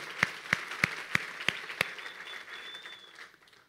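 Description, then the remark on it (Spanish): A church audience applauds the Lord, with six sharp, evenly spaced claps standing out above a softer wash of clapping that gradually fades away. No one speaks. “Sí, démosle un aplauso al Señor.”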